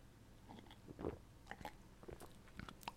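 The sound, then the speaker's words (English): Someone sips kefir, with a series of soft wet slurps, gulps and small mouth clicks spread across a few seconds. Quiet and intimate, with no talking. “Now, I'm taking a quick sip of kefir here.”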